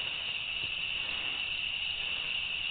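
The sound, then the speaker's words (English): A cricket chirps in a steady, unbroken high-pitched trill, constant throughout, with faint background hiss and no voices. “That's the cricket. The cricket.”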